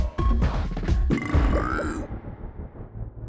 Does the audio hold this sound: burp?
yes